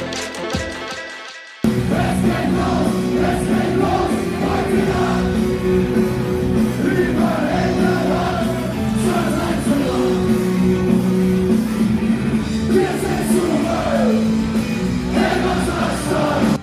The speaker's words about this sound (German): Es ist 21.15 Uhr. Gerade spielt die Band ihr erstes Lied. Die Zuschauer in den ersten Reihen klatschen und singen. In völliger Ekstase werden Rauffackeln gezündet und Bierbecher fliegen durch die Luft.